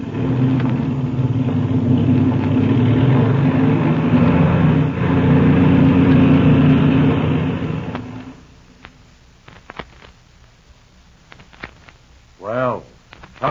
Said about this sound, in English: I'm going to warm up the engine as we taxi out.